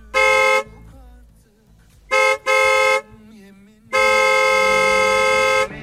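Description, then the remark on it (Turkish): Loud car horns blare in four blasts: a short honk, then a quick double toot, and finally a long sustained blast, with low traffic rumble underneath between them. “korna sesinden çok hoşlanmıyor anladığım kadarıyla.”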